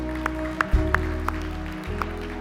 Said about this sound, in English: As I was watching the kids as they were up here for the special, right? They did such a great job tonight. Such a great job. know, you can clap for them.